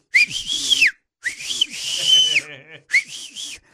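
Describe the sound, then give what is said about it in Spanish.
Three loud, shrill whistle blasts made with two fingers in the mouth, a Latino family's calling whistle, each swooping up and then dropping in pitch, with a longer blast in the middle and brief gaps between them. “Vamos, a todos en la familia latina tenemos un silbido que nos identifica porque el papá o la mamá siempre nos llamaba.”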